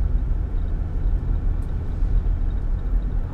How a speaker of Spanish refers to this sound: Ah, mira qué diferencia, camión. Hombre, carnal.